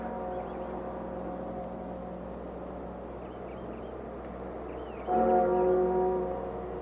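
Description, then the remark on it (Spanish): A deep church bell at the Vatican tolls slowly for the death of the Pope, its long humming resonance lingering before another heavy stroke rings out near the end and fades, with no voices present. “la campana dobla.”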